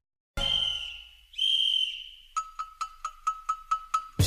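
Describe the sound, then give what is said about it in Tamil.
A short intro jingle: two long, bright whistle-like notes, then a quick, evenly spaced run of about nine plucky repeated notes, loud, with no talking. “ஆரம்பிக்கலாம் தாகிட தாகிடதம் start music”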